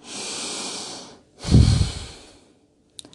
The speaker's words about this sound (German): Dann atmet sie tief ein und aus.